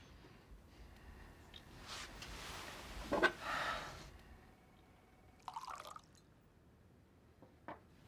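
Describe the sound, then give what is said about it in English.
Tequila pours into a glass in a short gurgling stream, followed by a few quieter clinks and drips, otherwise still, with no one talking. “This is the part where you pour me more tequila and tell me there isn't.”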